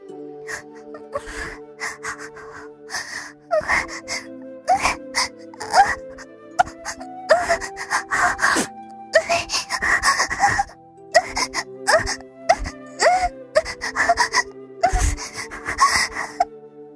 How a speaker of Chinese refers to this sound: 同时，我听见了一些声音。床的晃动声和我的呻吟声，